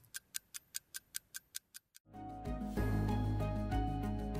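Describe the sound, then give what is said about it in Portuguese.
A clock-like ticking effect, about ten crisp, evenly spaced ticks in quick succession, stops abruptly and gives way to loud music that swells in and carries on. “Por essas e outras, alguns especialistas falam em bomba relógio demográfica na Europa.”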